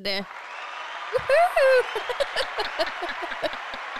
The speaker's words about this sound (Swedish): Fantastiskt att få sådana applåder. Jag har väntat i ett år på att få trycka på ja, den vi knappen.